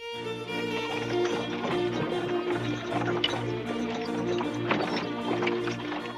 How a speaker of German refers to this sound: Nur wenige Wochen später verlassen drei vollbepackte Pferdekarren die Stadt Weimar.